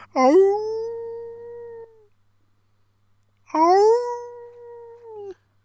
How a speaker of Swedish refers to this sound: Håll käften hundjävel. Så, så får man väl inte säga.